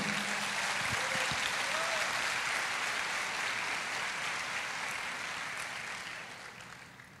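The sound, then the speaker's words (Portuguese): An audience claps for the Lord in a dense, continuous wash of applause that holds for several seconds before gradually tapering off, with a brief cheer rising early on. “Pode aplaudir o Senhor.”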